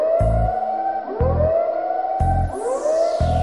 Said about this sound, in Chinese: 突然，一阵警报响了起来。